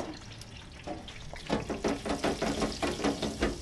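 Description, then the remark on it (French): Panisse fries crackle in hot oil in a deep fryer, a steady sizzling hiss that swells after a moment into dense, rapid popping bursts, fairly loud and continuous with no voices. “là, ça crépite.”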